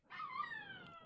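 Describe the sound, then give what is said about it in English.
A female pet dog howls at home in a long, wavering tone that slides slightly downward, sustained, with no talking over it. “She's singing.”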